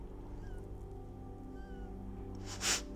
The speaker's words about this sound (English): You hear my nose? It just squeaked. No, you can't hear it now.